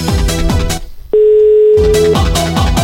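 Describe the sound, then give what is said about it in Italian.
A phone call's ringing tone as a call is placed to the first victim: one steady, mid-pitched beep lasting about a second, sounding alone in a short gap between stretches of loud rhythmic music, which returns over its tail. “Sentiamo se risponde la prima vittima.”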